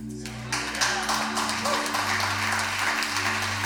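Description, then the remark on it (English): A crowd at a sermon breaks into steady clapping and cheering that starts abruptly and keeps going at an even level, with sustained low organ-like chords holding underneath. “Got you guys ready to cheer over this?”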